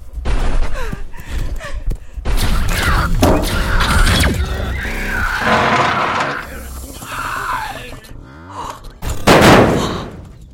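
Heavy metal plating being violently torn and wrenched apart, loud and close, with grinding screeches, squeals and crunching impacts over several seconds, ending in a sharp burst of noise.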